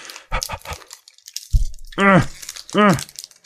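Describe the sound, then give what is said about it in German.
A plastic packet crinkles and crunches in a few quick bursts as someone struggles to open it, followed by two strained, drawn-out vocal grunts. “Geht nicht. Es ist un unöffnenbar.”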